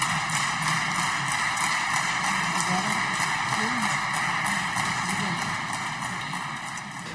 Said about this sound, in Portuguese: Os aplausos são do Chega, que diz querer evitar a promulgação da eutanásia a todo o custo e por isso não perde uma ocasião para o demonstrar.